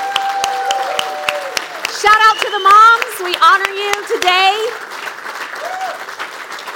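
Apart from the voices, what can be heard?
audience applause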